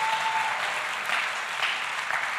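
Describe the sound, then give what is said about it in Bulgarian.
An audience breaks into sustained applause, a dense, steady wash of clapping hands at an even level with no clear individual claps standing out, and no talking. “О, ако вярваш това, дай му едно дарение на ръкопляскане.”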